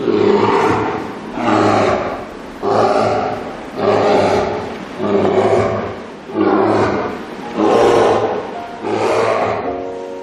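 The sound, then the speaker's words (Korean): A bear roars again and again in loud, rasping bursts, each about a second long, coming in a steady rhythm with short pauses between them and no voices, as it twists its body. “곰은 소리를 질렀다.”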